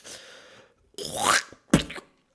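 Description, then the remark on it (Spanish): A voice imitates the wet, productive cough of pneumonia: a breathy lead-in, then a rough, rasping throat-clearing burst followed by one short, sharp cough, with no other sound around it. “Exacto, el sonido que deberías asemejar con neumonía es tos, pero le faltó algo. Tos productiva.”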